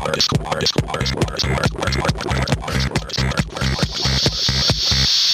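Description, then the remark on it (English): A glitchy electronic track with a steady, punchy beat and stuttering, chopped synth textures, plus a voice-like formant sound and a bright hiss swelling near the end. No one speaks. It is played on a MIDI-powered synthesizer whose new firmware update adds vocal formants. “It's got a new firmware update that allows it to do uh, vocal uh, formants.”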